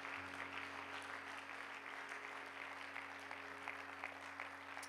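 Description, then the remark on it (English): A church audience claps their hands to the Lord before being seated, a dense, steady wash of many overlapping handclaps that keeps going without pause, with a low steady hum underneath. “Why don't you clap your hands to the Lord before you're seated?”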